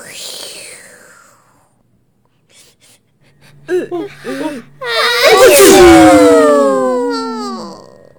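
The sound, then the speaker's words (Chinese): A breathy build-up of short, rising voiced gasps leads into one loud, explosive sneeze, which trails off into a long, wavering, descending vocal tail. It sounds like a voice acting out the sneeze, as all the animals in a narrated story give a huge sneeze. “所有的动物都打了一个好大的喷嚏，而且因为打喷嚏的力气实在是太大了，所有抱在一起的动物通通都弹开了。”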